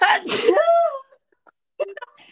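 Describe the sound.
A single sharp sneeze, trailing into a brief voiced exhale, followed after a short pause by a bit of laughter and quiet talking.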